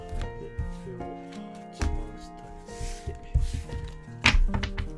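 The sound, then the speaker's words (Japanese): A deck of tarot cards being cut into three piles and stacked: a series of soft papery thunks and taps at an uneven pace, with brief shuffling rustles between them and a faint steady hum underneath. “聞こえてますかね、切ってる音ね。”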